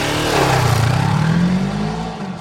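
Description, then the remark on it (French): Didier's motorcycle engine revs up loudly, its pitch climbing and then holding in a sustained throaty roar before easing slightly. No voices are heard. “Et Didier possédait plusieurs vélos et surtout une moto. Elle te plaît celle-là, mon loulou”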